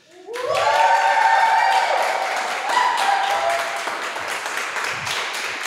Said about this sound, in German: ja, äh, vielen Dank für, für, den, für den warmen Applaus.